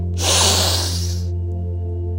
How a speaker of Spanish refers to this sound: Entonces aquí va a ser consciente, vas a inhalar profundo por la nariz. El aire debe entrar por las fosas nasales y entonces debe de ser algo como lo que va a sonar en este momento. Al inhalar va a ser así